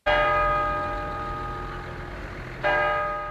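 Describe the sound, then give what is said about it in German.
The church tower bell of Fischbachau in the Leitzachtal strikes the quarter hour with two strokes, each ringing out with rich, sustained overtones that hum on between the hits. Loud and resonant, with no voices. “Jede Viertelstunde schlägt die Glocke im Kirchturm von Fischbachau im Leitzachtal.”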